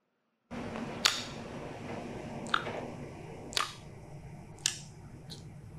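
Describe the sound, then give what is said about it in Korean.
Lip smacking, a side effect of iron medication: about five short, sharp wet smacks at irregular intervals, standing out clearly over a steady low background hiss, with no one talking. “지금 이렇게 입을 쩝쩝하는 거는 네. 이 철분이 먹는 이 약의 부작용에 서 일어나는 어.”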